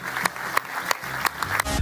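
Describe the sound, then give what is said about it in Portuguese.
A church audience applauds people who decided to follow Jesus, a steady wash of many hands clapping with sharper accents landing at a regular beat, ending in a low rumbling swell. “será que podemos dar uma salva de palmas a todas estas pessoas”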